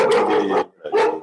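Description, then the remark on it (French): A large dog, the speaker's German shepherd, gives two loud barks in quick succession, the first drawn out and the second shorter, with no talking. “On a, on un berger allemand là.”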